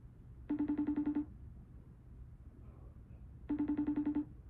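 An outgoing phone call rings twice, each ring a short buzzy pulsing burst separated by about three seconds of quiet line hiss, heard clearly with no one speaking.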